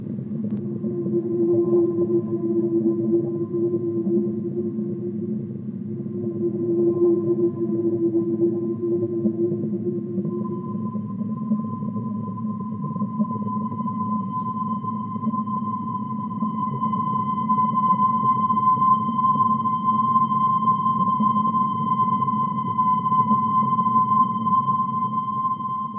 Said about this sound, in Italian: Questo è il suono emesso da una balena. E se chiudi gli occhi e ti lasci trasportare dal flusso di questo suono, sarà molto facile per te entrare in un profondo stato di rilassamento.